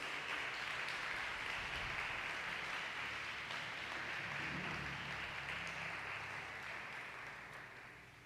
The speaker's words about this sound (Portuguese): Agora você pode dar a melhor salva de palmas para Jesus.